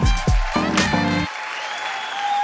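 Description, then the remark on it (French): A live audience at the Montreux Comédie show claps loudly and steadily to welcome comedian David Azencott, with a few whooping cheers rising early on before the applause settles into a dense, continuous patter. “Préparez-vous maintenant à accueillir notre prochain artiste et faites du bruit, où que vous soyez, pour David Azencott.”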